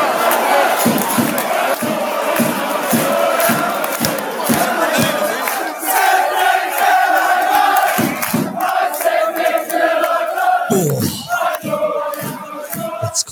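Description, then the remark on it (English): A loud, dense crowd roars continuously, with massed voices shouting and chanting together in rising and falling waves, some sustained tonal chant lines emerging over the din. “I kind of I was looking through different uh, sh- crowd noises, maybe maybe just to get people to feel feel something.”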